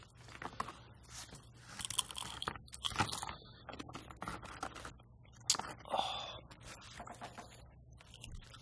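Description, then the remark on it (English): Chewing of the third and final chip, with irregular, fairly soft crunches and wet mouth noises spread over several seconds, heard alone without any talking. “Well, you know, there's no crunch on the third one there.”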